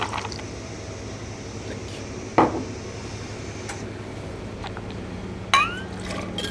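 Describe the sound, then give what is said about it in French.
Coffee poured directly over ice in a cocktail shaker while making a vodka and coffee cocktail: two sharp, ringing clinks of ice against the container stand out over a steady low background hum, with a faint liquid wash between them. “Et on va venir verser directement le café dans les glaçons du shaker.”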